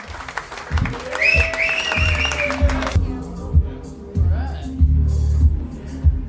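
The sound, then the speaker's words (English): An audience applauds comedians being brought onstage, with dense, steady clapping for about three seconds while a high, sustained tone rings over it. The clapping then stops abruptly, leaving people talking. “Uh, please give a warm, warm round of applause”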